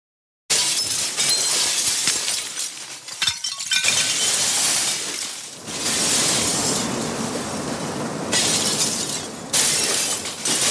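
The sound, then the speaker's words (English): A tower of water-filled glasses stacked in tiers on a table comes crashing down: a loud, sustained crash of glass shattering and tumbling, with bright tinkling shards cascading over several seconds in bursts, dense, echoing from the walls, with no voices. “The entire structure came crashing down, spilling water and shattering glasses as it fell.”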